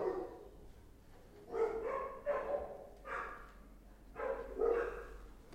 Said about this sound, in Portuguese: Ó, o cachorrado.